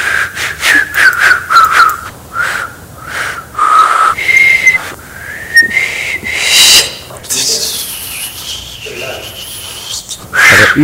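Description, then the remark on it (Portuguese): Several people attempt to whistle, producing breathy puffs, airy hisses and a few thin, wavering tones that briefly catch and break, in short uneven bursts. “Isto são pessoas a tentar assobiar.”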